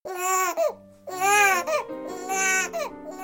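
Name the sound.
newborn baby crying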